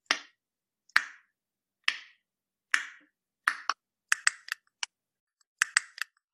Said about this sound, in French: C'est des cachalots qui sont en train de chasser dans les profondeurs et ils envoient un clic qui part dans la nuit et qui va rebondir sur les obstacles. Ici un calmar, ici un rocher, et ça va leur permettre de situer cet obstacle ou ce calmar.